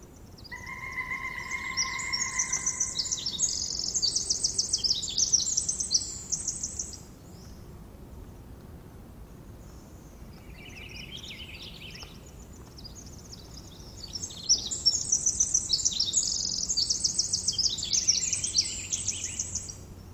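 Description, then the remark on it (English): Birdsong in an ancient cedar grove, the last remaining grove in Pacific County: bright, high chirping phrases trill and overlap in two busy bursts, a quieter lull between them, over a soft steady background hush with no voices. “This is a recording that I call Cathedral. is an ancient uh, cedar grove, the last remaining grove in Pacific County.”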